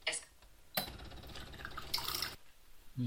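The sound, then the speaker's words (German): A coffee machine dispenses a steady stream of water into a glass of freshly brewed coffee for about a second and a half, fairly loud, then cuts off abruptly. “Gut, ich will jetzt noch Wasser dazu packen.”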